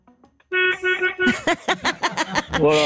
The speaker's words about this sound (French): Oui, c'est vrai que, heureusement, de l'intérieur, on dirait vraiment le klaxon d'une mobilette, mais c'est de l'intérieur. Voilà. parce que là, c'est un camion qui a des options minimum, c'est pour ça.